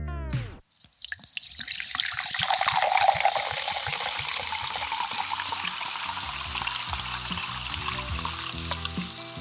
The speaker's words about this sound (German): Aber wie gesagt, hier mussten wir nicht extra pitchen. Und hier kommt der fertige Sound zum Einschenken.